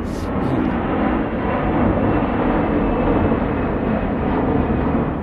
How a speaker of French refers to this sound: Vous êtes devenu un spécialiste de l'aéronautique, vous De l'aéronautique, non, mais du bruit des avions un petit peu.